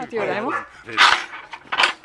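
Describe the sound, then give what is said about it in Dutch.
A young watchdog puppy barks, a high whining yelp followed by two sharp, bright barks spaced about a second apart, loud, with people talking around it. “maar Suus is helaas eh, een tijdje geleden overleden en er is een pup voor in de plaats gekomen”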